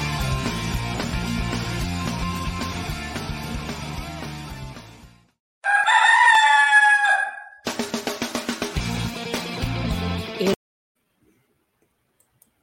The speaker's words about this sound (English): get that extra crow in there, man.